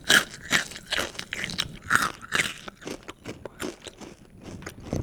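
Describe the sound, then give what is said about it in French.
Crunch breakfast cereal being chewed, with a steady run of crisp, brittle crackles over about five seconds and no talking. “En fait, euh, le début c'est pas crash, et mais au milieu on t'entend crac, crac, et après tu recommences pas crac.”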